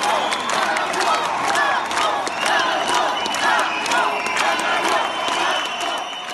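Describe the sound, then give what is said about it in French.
A large crowd of stranded French travellers chants loudly in unison inside the airport in Marrakech, Morocco, voices rising and falling steadily with scattered claps and shouts throughout, continuous for several seconds. “Là, c'est dans l'aéroport à Marrakech.”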